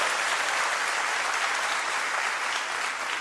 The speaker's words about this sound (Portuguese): Pode dar uma salva de palmas a ele.